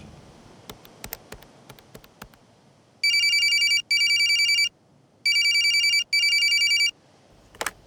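A telephone rings on an outgoing call: two bright, high-pitched double rings separated by a short pause, loud and steady, after a few faint clicks and ending with a sharp click.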